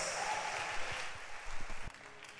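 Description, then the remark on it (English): A worship-service crowd claps steadily to welcome a woman coming up to minister a song, a dense wash of many hands with a few sharper individual claps standing out, at moderate volume without any talking. “Oh, please clap for her as she comes.”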